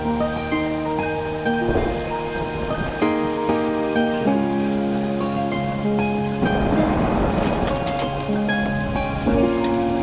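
Stormy ocean waves surge and crash over sustained musical chords, the roar swelling in loud broad bursts and then easing back, with a constant rain-like hiss throughout and no voices.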